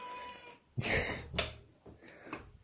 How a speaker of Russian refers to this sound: Ко мне пристал мой кот. Ему что-то от меня нужно. Его раздражает то, что я закрыл в туалете.